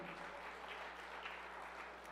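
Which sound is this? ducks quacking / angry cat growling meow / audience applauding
audience applauding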